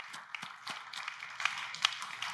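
An audience claps together, a dense, steady patter of many hands with a few sharper claps standing out, fairly soft overall and with no voices over it, giving a hand clap for the apostle Peter after a Bible reading.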